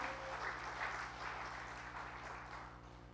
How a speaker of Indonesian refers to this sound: sudah dibaptis kemarin, beri tepuk tangan.